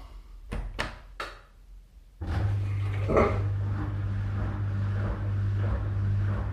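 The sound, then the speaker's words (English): A washing machine starts up: three sharp clicks or beeps, a short pause, then a steady low motor hum with a broad rushing wash that continues, fairly loud. “And there it is the sound of the washing machine, a fanfare for my new life.”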